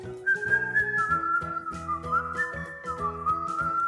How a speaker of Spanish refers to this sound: De hecho, creo que puedo escucharlo silbar. ¿Lo oyen?